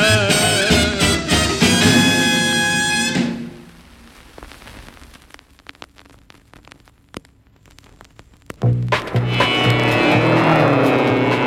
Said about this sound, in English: Now that's the mighty engine that gathers in your ears. The story of that engine is a legend through the years of man and steel and asphalt and Victory Lane Review.